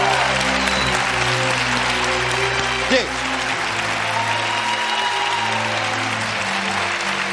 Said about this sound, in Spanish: Antes de nada, enhorabuena a nuestra selección femenina de fútbol. Venga, un aplauso para... Venga, hombre.